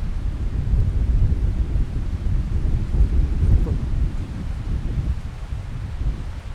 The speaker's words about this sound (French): C'est beau d'entendre le vent. J'espère qu'on entendra le vent. J'espère qu'on l'entend un peu, oui. Parce que là, d'un coup, ça souffle, c'est très beau. C'est à voir et à entendre.